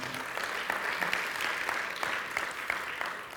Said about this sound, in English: Are you glad you came to church this morning? And see, yeah, you can give the Lord a great round of applause. I know you want to.